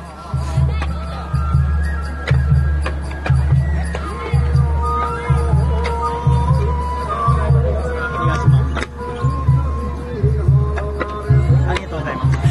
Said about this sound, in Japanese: 赤い獅子舞で、この八戸法令神楽の獅子舞は真っ黒い漆塗りなんだけど、だからもう怖くて、でも10体ほどある獅子舞がこの祭りでどんどんで前来るから、逃げるわけにもいかないし、まあまあ前で見てたから。